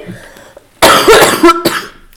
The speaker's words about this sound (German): Also, wie gesagt, dreimal husten, ich glaube, das ist weniger als beim letzten Mal.